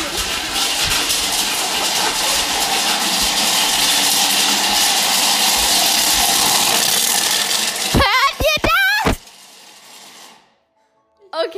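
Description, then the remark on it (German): A loud, harsh, rattling grinding of chocolate runs steadily for several seconds, then stops abruptly as brief voices break in, followed by near silence. “Weil es wird jetzt sehr laut, weil jetzt zermalen wir die nehmen Schokolade.”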